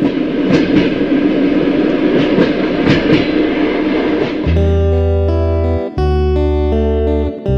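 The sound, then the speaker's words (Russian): A train carriage rumbles along the rails with steady, rhythmic clacks for several seconds, then a loud, sustained tonal drone takes over, briefly cutting out once before resuming. “Лиза не спеша зашла в вагон, села на свое место”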